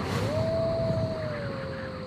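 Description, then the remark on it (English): Howling wind: one long, moaning whistle that rises, holds, then slowly sinks in pitch over a steady rushing hiss, fairly loud throughout, with no voices. “Wait for the wind and the howl.”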